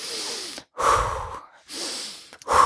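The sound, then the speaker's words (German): Audible breaths with no talking: a long airy inhale and exhale, repeated in slow cycles with brief pauses between, each breath broad and hissy. “Wenn ich aber vorher, bevor ich reagiere im privaten oder im Job, einfach mal durchgeatmet habe, so”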